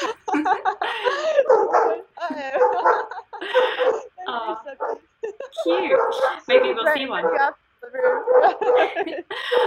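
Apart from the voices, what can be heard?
dogs barking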